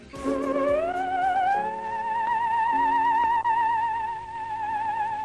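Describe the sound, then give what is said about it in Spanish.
A theremin plays a sustained eerie tone that glides upward and then wavers with a slow vibrato, backed by soft low accompanying notes; no talking, steady and fairly loud throughout. “Esto es el conocido como el teremín, bastante usado,”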